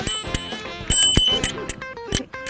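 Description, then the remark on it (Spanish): A small bell on a rental bicycle rings, a couple of bright, tinny metallic dings that linger briefly, mixed with clicks and handling noise. “¿Y suena la campanita?”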